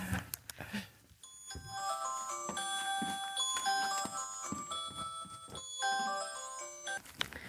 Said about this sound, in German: Ähm, ist das mein Handy? Moment. Äh, tut mir leid, ich muss das kurz ausschalten. Ich dachte, ich hätte das alles ausgeschalten.